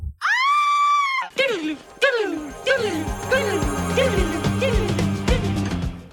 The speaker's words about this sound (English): It's a nice little bumper. We should bring that back. it was a good uh, stock audio of a scream.